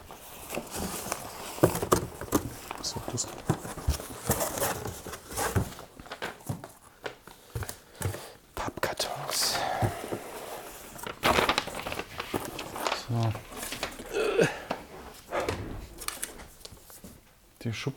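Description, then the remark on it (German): Items being taken out of a drawer: a steady stream of rustling, light clattering and irregular knocks and scrapes, fairly loud and busy throughout, with brief pauses between handfuls. “Schublade ist jetzt leer.”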